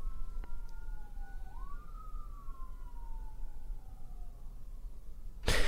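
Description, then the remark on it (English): A police car siren wails, its pitch sliding slowly up and down over steady low traffic rumble, ending with a brief burst of noise, heard during rain in Tennessee. “And the police as well. You hear them? The police are around here.”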